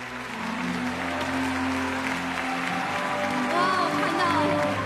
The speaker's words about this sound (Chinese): 而当晚最感人的一幕，莫过于现场镜头定格在台下的李雪健时，在场的所有观众都自发的起立鼓掌，向这位老艺术家致敬。